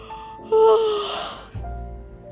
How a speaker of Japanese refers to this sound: あー、ちょっと待って。あくびさせて。